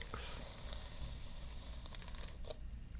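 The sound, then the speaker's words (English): A hairbrush rasps through tangled hair in soft, continuous scratchy strokes, quiet, with small snagging crackles along the way and no talking. “I'll try to brush these tangles out of your hair while you just try to relax.”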